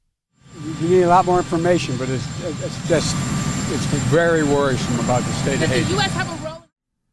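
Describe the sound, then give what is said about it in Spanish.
A helicopter engine drones steadily and fairly loudly in the background in Washington as US President Joe Biden is about to board it, while a person speaks over it, the mechanical rumble continuing throughout. “Desde Washington, el presidente de Estados Unidos, Joe Biden, dijo ayer, justo antes de abordar un helicóptero, que espera más información de lo sucedido y que es muy preocupante lo que está pasando en Haití”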